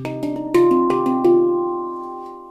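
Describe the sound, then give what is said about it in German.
A borrowed handpan is played solo, a groove of about seven soft struck notes in a quick flowing pattern. Their bright metallic tones ring and blend together, then fade slowly into a long sustain. “Von Maltes Handpan.”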